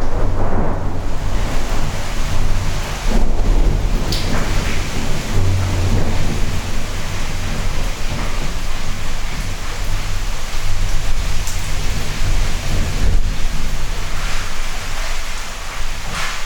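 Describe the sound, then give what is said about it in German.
Steady, dense rain roars throughout a thunderstorm, with a few sharp thunder cracks and rumbles breaking through at intervals. No one speaks. “Dann haben wir nicht nur eine reine Kaffeefolge, sondern halt, wo, dann kommt halt auch mal ein kleines Gewitter.”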